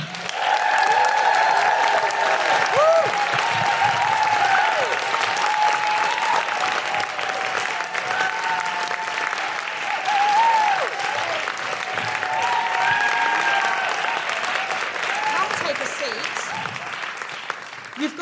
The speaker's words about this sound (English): Please put your hands together and make incredible woohooing noises for the wonderful Daisy Haggard.